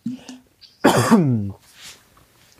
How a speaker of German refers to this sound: Sekunde, ich muss husten.